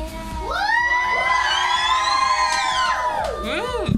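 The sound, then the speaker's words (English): Several voices cheer and shout together in the studio of Radio Kol Rama during its show Tochnit HaKochavim, a loud, sustained burst lasting a few seconds, with high, rising and falling whoops layered over one another before tapering off. “תעשו רעש!”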